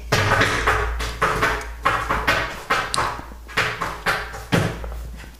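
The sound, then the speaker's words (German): A tomcat making noise in a kitchen: a fairly loud, irregular series of about a dozen clattering knocks and bumps, each sharp at the start and quickly fading, with no one speaking. “Ja, wir ignorieren jetzt die Geräusche des Katers einfach fertig.”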